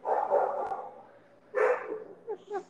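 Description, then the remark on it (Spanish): A small, thin, malnourished female dog baring its teeth barks in two bursts of high, yappy barks, followed by a few shorter yips, moderately loud with no talking. “Y está, ahí está, no, ahí está no, de a la perrita está ladrando a la perrita.”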